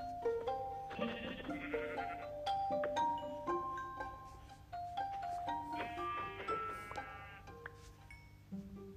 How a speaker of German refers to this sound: Das ist ein weißes Schaf.